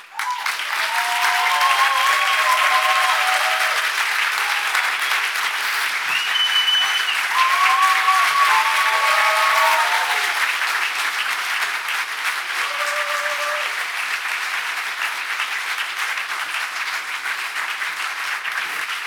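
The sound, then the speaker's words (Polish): Sustained applause from a large audience welcoming the evening's main guests, dense and steady clapping with a few faint voices and whistles rising above it, filling the whole stretch. “Wielkie brawa.”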